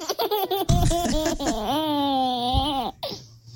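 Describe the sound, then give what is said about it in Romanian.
A baby on a swing laughs in bursts of bright, high-pitched giggles, then lets out a long, sustained squealing laugh before trailing off, clear with no talking. “Un sunet de bebeluș autentic.”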